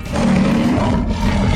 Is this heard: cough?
no